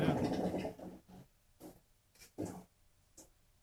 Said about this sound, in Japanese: 何の音 何の音これ何かを。ああ、ああお湯切ったのか、ざるかなんかで。ああお湯の音が聞こえますね。